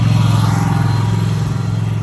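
A small, loud engine vehicle drives past, its rough, buzzing drone steady and throaty with a pulsing low rumble, filling the whole moment with no voices over it.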